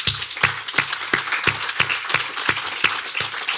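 An audience claps steadily for a few seconds, with a dense wash of many hands and a few sharper, louder claps standing out near the front.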